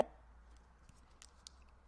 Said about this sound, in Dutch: want je, je viel, even oh, weg, oh. want op dit moment... Oh op dit moment gaat er in mijn telefoon voor heel Zuid-Israël luchtalarm af. Ja. Mm. ja, dus je viel even weg.